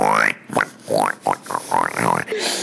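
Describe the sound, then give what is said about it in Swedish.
A voice makes a quick run of about six squealy, pig-like oinks and grunts, fairly loud, with rising and falling pitch, imitating a pig. “Oinket!”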